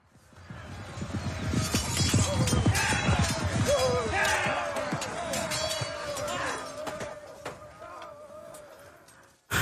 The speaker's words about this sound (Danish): Kan du fornemme stemningen af et øh, slag imellem ridder og fodsoldater? Mid-evil. Nee. Mid-evil shit. Det lød mere som en vinterferie i Prag. Det er også der, vi har den fra.